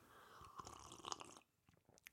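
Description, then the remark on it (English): A wet slurp of hot coffee lasting over a second, followed by a few faint mouth clicks and a swallow. “Slurping. People tune into podcasts for for slurping. Coffee Foley.”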